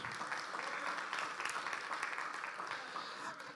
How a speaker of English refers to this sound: This church is a Bible believing, Bible standing, Bible standard church. You ought to clap louder for that.